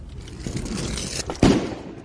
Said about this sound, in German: Hektisch legt er etwas vor die große dunkelbraune Holztür und zündet es an. Es explodiert.